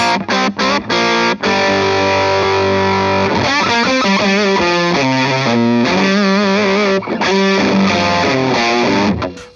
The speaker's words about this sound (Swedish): Här, här, är, nu är det inte riktigt det den är tänkt för, men som diskpedal utan tonkontroll så låter den så här med relativt mycket gain.